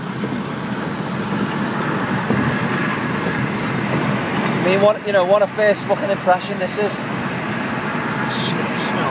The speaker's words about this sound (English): So uh, we're gonna let you go anyway because I can't really hear myself think. We're overtaking giant fucking lorries.